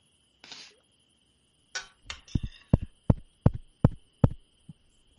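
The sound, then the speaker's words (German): Several firm knocks on a house's front door, which has a window, about seven or eight in a steady, slightly uneven rhythm, following a brief rustle, with a faint constant hum in the background and no talking. “Wir, wir können ja mal gegenklopfen.”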